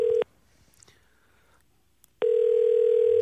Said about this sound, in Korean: 하나님 전화 한번 걸어보겠습니다